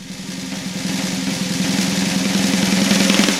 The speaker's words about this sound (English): Drum roll.